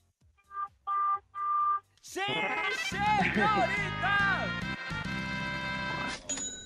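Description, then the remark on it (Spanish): A driver in his car honks the car horn three times in quick succession, short steady blasts, before a loud burst of lively, overlapping voices and sound takes over. “para comprobar que vas en tu auto, ¿puedes tocar el claxon tres veces?”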